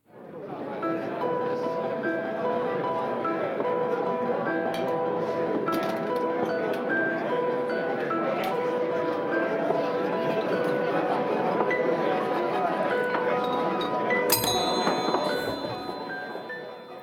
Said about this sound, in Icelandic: Við erum stödd á fínum veitingastaf þar sem undurfærir tónar eru spilaðir á piano. En í bland við skvaldur og klingjandi glös er kannski svolítið erfitt að heyra nákvæmlega hvaða lag pianistinn er að spila.